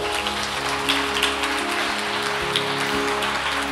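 A steady wash of applause with dense, crackling claps that holds at an even, fairly loud level for a few seconds, over a faint low hum.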